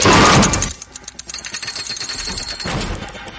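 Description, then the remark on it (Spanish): An electronic track opens with a loud, noisy burst, then settles into rapid, crackling percussive clicks and glitchy beats, swelling again toward the end, with no voices. “hay una canción que tenemos que escuchar de … y que suena así”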